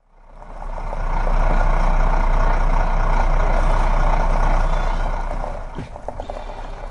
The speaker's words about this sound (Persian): به سرعت کامیون را در های کوههای اطراف سراوان میراندم